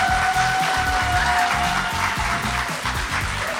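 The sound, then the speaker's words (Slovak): A dense, steady round of hand clapping that carries on for a few seconds at a fairly loud level, with a rhythmic low musical beat and a thin sustained tone underneath. “Jeden potles.”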